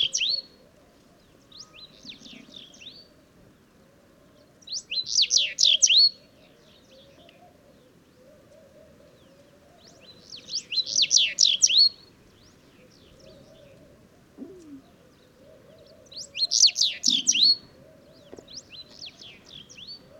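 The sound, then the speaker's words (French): A house bunting in Mauritania sings short, bright, buzzy phrases, repeated about every five or six seconds, while laughing doves coo softly and steadily in the background. “Bruant du Sahara - Mauritanie”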